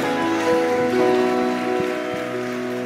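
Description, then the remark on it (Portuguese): An audience at a church service applauds the Lord in a steady, dense wash of clapping that runs the whole time at an even loudness, with sustained musical tones holding underneath. “Você pode aplaudir o Senhor pela vida dessas pessoas.”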